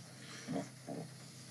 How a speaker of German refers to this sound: Hast du gefurzt? Nee, das war mein Magen.